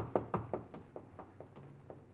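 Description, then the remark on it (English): Quick, evenly spaced footfalls of someone running in a parking lot, about ten soft thuds that fade slightly as they go, fairly quiet and heard on their own with no talking. “And as you walk toward your car, you hear footsteps, catch a quick glimpse of a running figure.”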